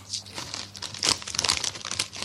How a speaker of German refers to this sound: lässt du die Tüten mal hier in Ruhe, bitte. Ja, mal, ja, mal. Sonst kippst du die gleich aus.